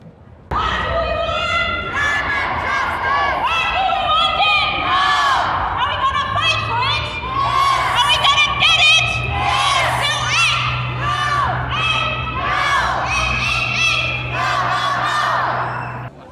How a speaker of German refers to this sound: Wir sind da jetzt mitten im Getümmel der Demo